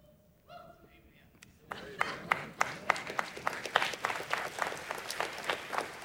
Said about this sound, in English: They clapped for me too.